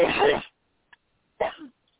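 Two rough, harsh bursts of coughing or throat clearing from a man during a deliverance prayer, a broad one at the start and a shorter one after a pause, fairly loud, with a tiny click between.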